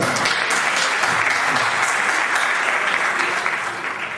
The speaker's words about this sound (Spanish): Un aplauso.